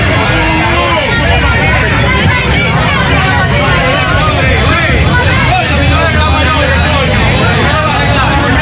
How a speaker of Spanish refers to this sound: el barrio entero fue allá a despedirlo y en el cementerio del ingenio se armó tremendo titingó. Sí, miren, la policía quería evitar, vamos a escuchar, que penetraran todos los que se presentaron.